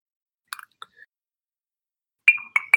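Light, scattered clinks of a drinking glass, then a louder burst of close, bright glassy knocks and rattles near the end, as if an emptied glass is tipped and set down. No voices.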